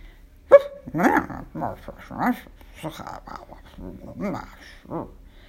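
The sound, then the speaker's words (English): Two dogs, Liebchen and Tulla, growl and yip in quick, uneven bursts of playful vocalizing as they nip at each other's tails and wrestle in the grass, starting with a sharp snap and continuing through a string of short rough grumbles and whines. “They would nip at each other's tails and wrestle in the grass the kind of playing dogs do with their best friends.”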